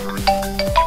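A telephone rings with a quick run of repeating electronic tones, steady and moderately loud, heard on its own without any talking.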